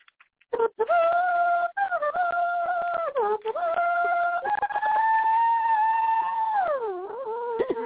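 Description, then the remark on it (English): A voice hums a high, sustained, shrill melody as opening music, sounding like a whistling kettle, holding long wavering notes with slides and brief breaks, loud, with no other sound behind it. “You sound like a tea kettle.”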